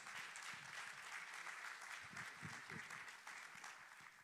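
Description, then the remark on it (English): A crowd applauds steadily as a pastor comes up, a dense wash of clapping that holds at an even level throughout, with a few faint voices mixed in underneath. “So, you guys give it up for Pastor Josh as he comes.”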